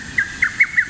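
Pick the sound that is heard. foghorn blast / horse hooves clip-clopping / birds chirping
birds chirping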